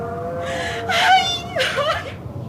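A woman screams in fright: a wavering moan rises into two loud, shrill, strained cries in quick succession, with no talking.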